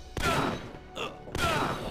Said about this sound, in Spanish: Va a ser bien sádico lo que voy a hacer, pero ya que está dormido voy a aprovechar para ejecutarlo de un disparo.